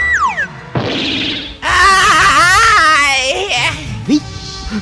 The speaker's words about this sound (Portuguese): Foi lá fora! E foi o grito da minha mãe!